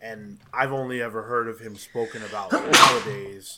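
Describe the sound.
A single sharp sneeze bursts out near the end, loud, cutting into a man's steady speech.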